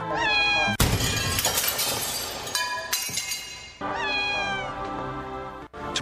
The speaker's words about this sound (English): They're cats. America's most popular pets, but also the pet most likely to die prematurely from disease, poison, animal abuse, and collision with vehicles because many people let their cats roam freely.